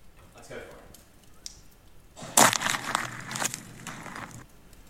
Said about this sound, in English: what that boot is stepping on. Oh, Megan, a pine cone.